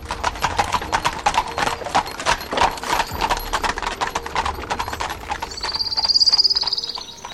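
Horse hooves clip-clop at a steady trotting pace throughout, pulling a cabriolet as Lord Henry and Dorian Gray leave the studio, fairly loud, with a brief high-pitched squeal rising near the end.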